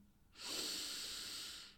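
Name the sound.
deep inhaling breath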